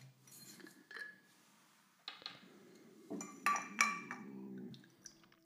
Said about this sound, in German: Würde ich jetzt mal was einschenken.